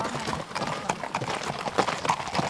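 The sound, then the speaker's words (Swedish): Horse hooves clip-clop in a steady rhythm during an outdoor ride in spring warmth, each strike a crisp knock over a dense outdoor background with faint rustling. Slight murmurs of voices may sit beneath the hoofbeats. “Och du är inte rädd när du rider?”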